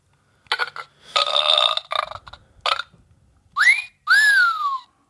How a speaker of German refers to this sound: Ja, okay, ist nicht laut genug, ne? Ja, äh, nicht wirklich. Und das ist auch ein bisschen anderer Pfiff, ne? Das ist ein bisschen anders.